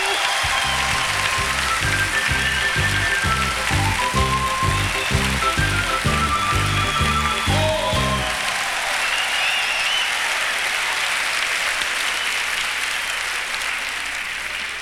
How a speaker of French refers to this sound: Vous avez certainement reconnu cet homme simple, modeste, qu'est le capitaine Bonhomme. On l'applaudit.